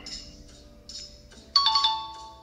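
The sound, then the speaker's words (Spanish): A short burst of the Fraggle Rock puppet TV show theme music: bright, chiming melodic notes that jump louder about halfway through, then ring out briefly. No one talks over it. “Es como un tipo Muppets, pero de rock.”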